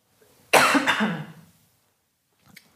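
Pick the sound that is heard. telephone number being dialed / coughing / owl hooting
coughing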